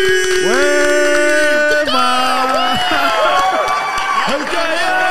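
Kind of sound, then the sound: crowd, audience applause and cheering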